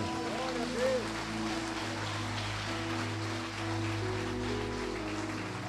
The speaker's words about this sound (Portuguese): Aplaude ele, aplaude.